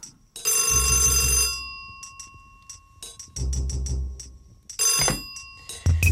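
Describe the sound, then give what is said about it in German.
An old-fashioned telephone bell rings in loud, bright bursts, three rings with short pauses between them, the last cut short; the call is from the police commissioner. No one speaks. “Der Kommissar klingelt ein paar Mal am Tage an.”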